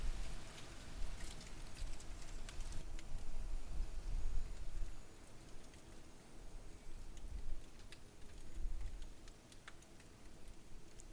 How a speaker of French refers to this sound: les gouttes de pluie, tambourine sur les fenêtres, et laissent sur les vitres des traces rondes, cristallines, qui dégringolent en zigzag au gré des bourrasques.